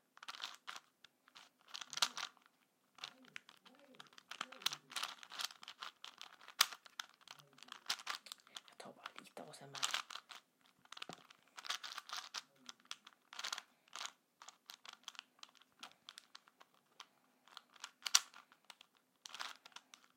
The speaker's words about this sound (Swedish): Men jag hittade en Rubiks kub och den har ju typ eh, ett ganska satisfying ljud. Det låter ju så här.